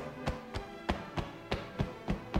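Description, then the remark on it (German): A steady series of soft hand taps, about three per second, patting over the groin and down the inner side of the leg with a muffled, fleshy thud and no talking. “Ja, und ihr könnt euch denken, dass dieses genau auf der anderen Seite ebenfalls geklopft wird. So gehen wir wieder über die Leiste des anderen Beines”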